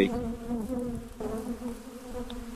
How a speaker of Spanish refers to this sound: Eh, estas que están aquí son, son abejas, las pueden ver ahí.